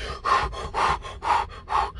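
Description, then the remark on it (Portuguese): Heavy, rapid panting: four loud, breathy gasps in a steady quick rhythm, a person catching their breath after physical exertion, with no talking. “Beleza, você vai respirar, você vai oxigenar e depois que você já não tiver tão ofegante, você pode fazer algumas técnicas de você manter, voltar a sua respiração ao normal.”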